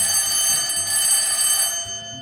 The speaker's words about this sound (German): Schulglocke. Oder? Ja.